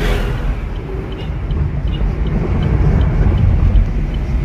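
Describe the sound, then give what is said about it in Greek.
A firefighting helicopter roars overhead while fighting wildfires in Penteli, Greece, its heavy engine and rotor rumbling loud and steady throughout, with wind noise buffeting the microphone and no voices. “Παλεύουμε τώρα με ελικόπτερα να σβήσουμε τις φωτιές.”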